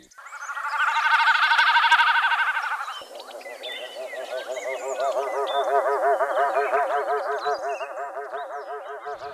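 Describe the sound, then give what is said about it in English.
A snipe's courtship drumming, made by the vibration of its two outer tail feathers as the bird dives: a wavering, bleating hum that swells loudly for a few seconds, then continues as a lower, rapidly throbbing pulse, heard alone without voices. “One of the giveaways, however, is the noise that the snipe makes when it's courting. It's described as drumming.”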